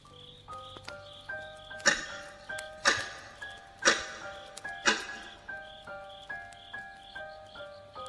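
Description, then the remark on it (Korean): A clock in a dark, silent room at night ticks steadily about once per second, sharp, with several louder ticks in the middle, over a soft, tinkling music-box-like melody that plays throughout. “어두운 이 방, 정적 속에서 마치 시계는 나를 깨우려는 듯 신경 거스리는 소리를 내었다.”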